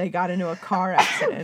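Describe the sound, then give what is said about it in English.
A single quick sneeze bursts out mid-sentence, sharp and breathy, as a person keeps talking around it. “Sorry. Bless you.”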